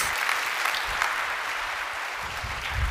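An audience claps steadily for a young boy who helped out on stage, a dense, continuous patter of many hands at an even loudness throughout, with no voices standing out above it.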